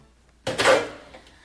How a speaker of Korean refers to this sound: 그래서 3개월쯤 흐른 어느 날 용기를 내어 학과 사무실 문을 열었죠.